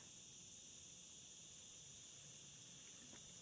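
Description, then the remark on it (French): A dense chorus of cicadas buzzes in a continuous, high-pitched drone that holds steady throughout, with no one speaking over it. “Je suis désolée, mais là les cigales, elles sont au bout de leur life.”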